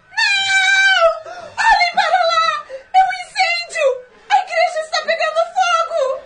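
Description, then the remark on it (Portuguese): A woman screams in terror as she throws herself toward a window at a sudden flash of light. Her loud, high-pitched, wavering cries break into several anguished bursts over about six seconds, with no other talking. “se atira em direção à janela como se quisesse fugir e solta um grito de terror.”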